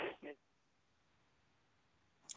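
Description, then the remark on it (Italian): A caller's phone call drops out: a brief burst of voice cuts off abruptly, leaving about two seconds of quiet hissing dead air, then a faint short click at the end. “mi sa che è caduta la chiamata, mi dispiace che non siamo riusciti a sentire la fine dell'intervento”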